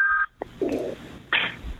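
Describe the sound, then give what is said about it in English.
A short run of electronic tones from a man's mobile phone going off: a high beep, a lower tone, then another bright beep, fairly loud, with no talking over them. “Sorry about that. That's there. okay. I'm going to turn my phone off.”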